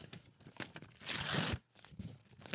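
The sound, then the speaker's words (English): A paper betting ticket being torn up: a few short rips and crinkles, then one long, loud continuous tear lasting about half a second, followed by softer rustling. “Eric Hosmer will now go on a tear now that I've officially destroyed my $1,500.”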